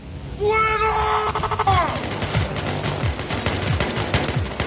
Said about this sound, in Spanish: ráfagas de 16 Varias armas disparando a la vez.